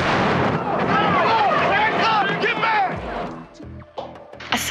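A loud bomb blast: a second bomb going off at the scene of an earlier bombing of an abortion clinic in Sandy Springs, an Atlanta suburb, as FBI, ATF and local police respond. It roars into a long, rumbling wash of noise with people shouting over it, then fades into scattered thuds and commotion.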